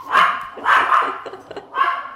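A small five-pound dog barks three times in quick, sharp bursts, yappy and high-pitched, loud with brief pauses between the barks and no talking.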